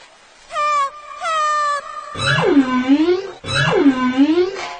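A humpback whale call from a whale stuck at a small rocky island: two short, steady tonal hoots followed by two long, loud moaning wails that swoop down in pitch and slowly rise again, with no talking.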